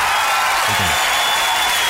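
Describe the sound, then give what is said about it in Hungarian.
Steady, dense applause fills the whole short stretch, an even hiss of many hands clapping with no speech, broken only by a brief low rumble midway. “A taps természetesen nem a játékosnak, hanem a mi emberi nagyságunknak.”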